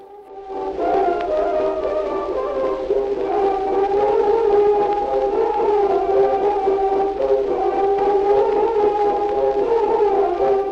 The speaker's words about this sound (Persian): قطعه ای که میشنوید مارش سلام شاهی است که از ساخته های موسی و لومر فرانسوی است که در سال 1284 در تهران ضبط و اجرا شده و روایت میشه که اولین سرود ملی ایران هم هست